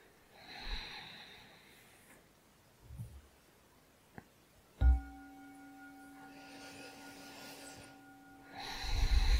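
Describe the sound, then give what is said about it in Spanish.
Three slow, deep abdominal breaths drawn in and out through the nose, airy, with a single clear chime struck midway that rings on beneath the breathing. “Tomamos tres respiraciones abdominales lentas y profundas por la nariz.”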